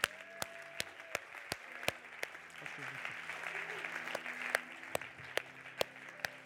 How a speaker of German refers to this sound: Komm, wir geben mal Jesus einen schönen Applaus.